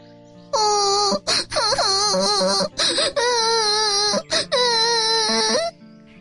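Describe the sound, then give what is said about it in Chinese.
A frightening, eerie crying wail in a foggy forest rises and wavers in pitch, sounding loud and shrill in several long sustained bursts broken by short gaps, with no one talking. “雾蒙蒙的森林里，突然传出了一个可怕的哭声。”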